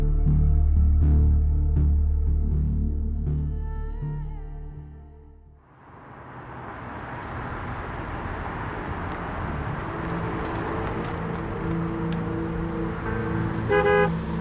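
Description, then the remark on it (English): A cab's horn blares in sustained, loud honks, then gives way to the steady rumble and hiss of the cab idling or pulling up, with no one speaking. “Someone order a cab?”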